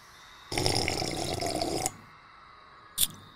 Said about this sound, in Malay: Jadi bila melihatkan Sabri telah meminum air itu dulu, Pak Usop terus mengambil cawan lalu menghirup kopi O yang masih panas.